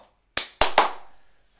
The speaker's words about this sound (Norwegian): Det, det, jeg, jeg føler det er en sånn kort applaus.